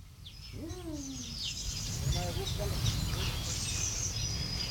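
A drawn-out owl hoot, imitated by a human voice, sounds once near the start, followed by faint bird chirps over steady background noise.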